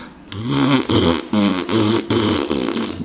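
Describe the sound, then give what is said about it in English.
A long, loud, buzzy fart sound effect sputters on for about three seconds, wavering in pitch and breaking into several sustained bursts, with no one talking. “so you hear a long fart sound, and I'm like, oh man, I feel better.”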